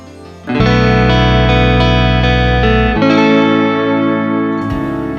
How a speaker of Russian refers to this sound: группе … за композицию «…». Именно она звучит в подкасте